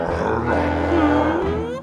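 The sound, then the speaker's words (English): A person voices a deep, rumbling dinosaur growl, held for about two seconds, loud with a rough, gravelly texture that rises slightly in the middle. “Does he growl during chop talks?”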